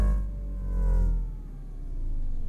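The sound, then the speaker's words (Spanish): A newly made spaceship-like electronic ringtone plays alone on a cell phone, a deep rumbling drone with layered tones that slowly slide downward in pitch, swelling and fading over a couple of seconds. “Creamos un nuevo tono de llamada que suena como una nave, nada más.”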